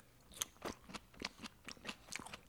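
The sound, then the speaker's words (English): Crunchy chewing, a quick series of crisp, crackling bites repeating steadily every fraction of a second, fairly quiet with no talking. “Let's dig in. Either way, I'm starving.”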